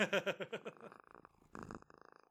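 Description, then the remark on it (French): A female cat purrs loudly, a rapid rhythmic rumble that eases off partway through, then swells again briefly before fading. No one speaks. “Fait que là, elle me gosse pis elle ronronne fou.”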